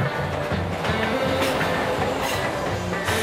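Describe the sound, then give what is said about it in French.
A New York subway train rumbles steadily along the rails, with a repeating low clatter of wheels and bright metallic hiss and squeal bursts rising now and then, loud throughout. “Les années 40, Harlem, New York, et cette nouvelle branche du métro qui bifurque vers le Bronx au niveau de la 145e.”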